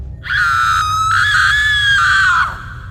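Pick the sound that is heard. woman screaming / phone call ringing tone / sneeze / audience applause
woman screaming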